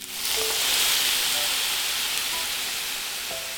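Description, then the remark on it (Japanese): White wine is poured into a hot frying pan of minced meat once the meat changes colour, bursting into a loud, steady sizzle as the alcohol cooks off, a dense crackling hiss that holds strong for several seconds with a few faint squeaky tones. “ひき肉の色が変わったタイミングで白ワインを注ぐアルコールを飛ばすくらいの感じで”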